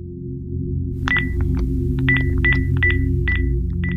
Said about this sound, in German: Zum dritten Mal an diesem Samstag ruft Lothar Habert bei seinem Sohn an. Er lässt das Telefon mehrere Minuten lang klingeln, aber Sven hebt nicht ab. Auch seine Mailbox hat er ausgeschaltet.